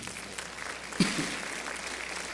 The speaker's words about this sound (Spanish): Dale otro aplauso fuerte al Señor.